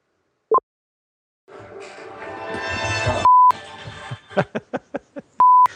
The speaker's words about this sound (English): it's my ABC alarm waking me up for the top news hits for the day